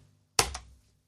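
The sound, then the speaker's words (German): A single keystroke typing the letter U on a keyboard: a sharp click as the key goes down, then a softer click on release, with silence on either side. “Das ist das U.”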